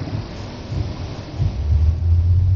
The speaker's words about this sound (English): here recording live straight to your devices from my car where I'm driving. Very rainy weather on this lovely Monday, the April the 22nd.